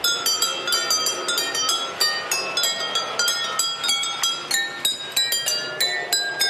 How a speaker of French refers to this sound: Le train est équipé de baguettes sur les côtés qui frappent des verres plus ou moins remplis d'eau disposés le long des voies